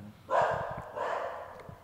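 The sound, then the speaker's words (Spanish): Dogs bark in two drawn-out, somewhat howling bursts, one right after the other, with no one talking over them. “Uy, hijo de puta, se soltaron los perros.”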